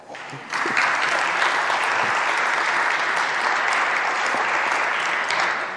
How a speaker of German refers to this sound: ein Applaus bitte.